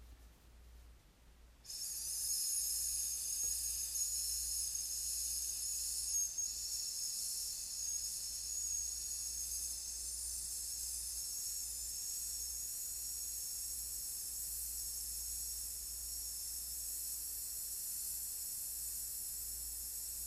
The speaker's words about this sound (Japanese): 最初はセーブをし最後はしっかりとこう絞り上げて出すそんな、えー、お腹の筋肉の使い方を行っていきますではもう一度だけねこの S で長く伸ばすのをやってみましょうはい息を吸って